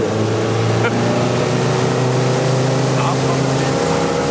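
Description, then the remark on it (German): A motorboat engine drones loud throughout as it is given throttle on a fishing outing, a steady throbbing hum with a rushing, wind-like hiss over it, holding a fairly even pitch for the whole few seconds. “Ja, gib ja. Gas. Wo fahren wir denn fahren jetzt?”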